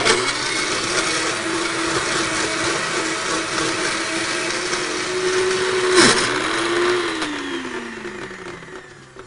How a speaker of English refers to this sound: Okay, so now that we've got the blender started and got the ice crushed a little bit, let's go ahead and add in our sweetened condensed milk.